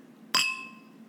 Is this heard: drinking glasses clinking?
yes